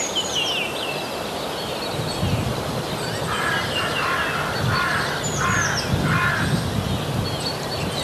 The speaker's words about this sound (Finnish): Varikset haluaa tulla mukaan. Mm. Ja se sallitaan.